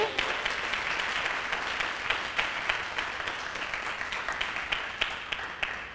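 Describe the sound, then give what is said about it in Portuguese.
A crowd applauds steadily, many hands clapping in a dense, continuous patter with small bursts of louder claps throughout, no talking over it. “Dá mais um aplauso aí.”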